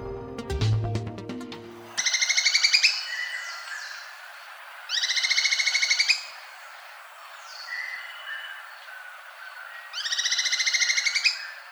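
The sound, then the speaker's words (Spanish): A golden-crowned spadebill, a 10-centimetre bird, recorded by ornithologists in Valle del Cauca and Antioquia, Colombia, sings three high, thin, rapidly trilled phrases a few seconds apart, with softer twittering notes between them. No one speaks. “Escuchamos al pico de pala cresti amarillo, según fue captado por ornitólogos colombianos en el Valle del Cauca y Antioquia.”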